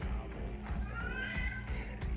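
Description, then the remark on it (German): A cat meows once in the background, a drawn-out, wavering cry partly buried under steady low rumbling noise. “Okay. Katze.”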